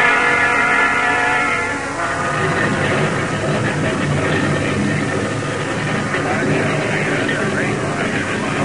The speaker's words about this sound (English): Pardon me, ma'am, but are we going to take off soon? Mm, as soon as the pilot gets clearance. Sure, a lot of noise inside a plane, isn't it? the engines?